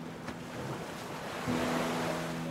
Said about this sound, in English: The waves that broke on the shoreline crashed like rain